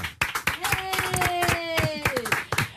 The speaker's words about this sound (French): Applaudissements pour